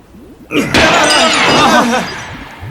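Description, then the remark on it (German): A sharp gunshot crack sets off a loud shattering of glass, with bright tinkling shards spilling and rattling for about a second and a half before fading out. “Der nächste Schuss geht höher, wenn du nicht augenblicklich.”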